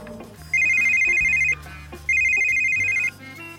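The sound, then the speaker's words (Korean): A phone rings in two steady, trilling bursts of about a second each as an outside call is placed from an office phone, separated by a short pause, with a low background hum and no talking. “외부 전화 걸 때는 번호 누르기 전에 9번 눌러야지.”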